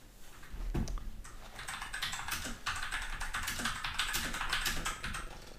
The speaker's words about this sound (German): Tut mir leid, dass meine Tastatur so scheiße laut ist. Ich habe eine mechanische.